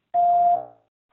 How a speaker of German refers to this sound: Wir freuen uns über alles, was ihr uns nach dem Piepton hinterlasst.